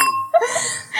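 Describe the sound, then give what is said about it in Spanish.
Glasses clink together in a toast, a bright ringing chime that lingers briefly before a burst of breathy, noisy commotion from people. “Vas a romper la copa, mujer.”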